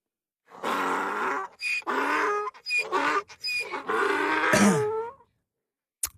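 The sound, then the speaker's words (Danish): A donkey brays loudly for about five seconds, a series of harsh, rasping see-saw heehaw calls with strong harmonics and short breaks between them, with no talking. “lad æslet give et shout-out til sig selv på sin mand, ikke?”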